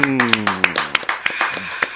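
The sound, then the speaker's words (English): Scattered, irregular hand claps from a small group welcoming a guest to a show ring out in sharp bursts for about two seconds, overlapping a voice that talks and sustains a pitched tone underneath. “Y'all clap hey. it up one time.”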